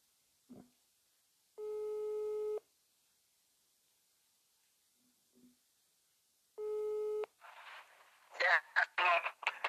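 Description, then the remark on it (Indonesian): A telephone ringback tone purrs twice as someone phones a longtime friend, each a steady harmonic buzz about a second long separated by a pause of silence, followed by someone starting to speak afterward. “langsung misalnya di tanpa basa-basi langsung misalnya saya telepon deh kepala lama sekali”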